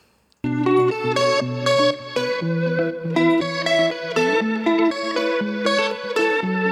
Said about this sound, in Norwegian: Så her får du svensk partymusikk ifra Sverige.